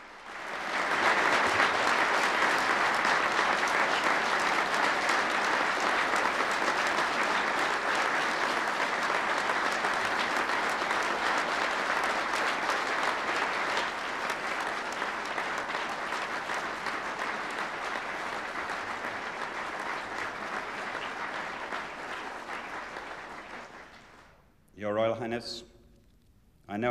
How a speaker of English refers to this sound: They'd come to celebrate a charity function, they hadn't expected a, a constitutional announcement. And they burst into thunderous applause.